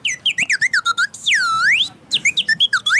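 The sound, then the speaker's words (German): A small, ordinary toy whistle chirps in quick, warbling bursts, then a long sweeping swoop that dips and rises, followed by more rapid chirps. Bright and shrill, with no talking. “Ja, ich glaube, der hat normale Pfeiferl. Hey, sind das nur normale Pfeiferl?”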